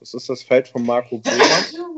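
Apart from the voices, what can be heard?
sneeze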